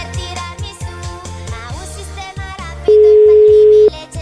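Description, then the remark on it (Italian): A single steady ringback tone of an outgoing telephone call, about a second long and loud, sounds over background music with a thumping bass line, with no talking. “Sentiamo se squilla il telefono.”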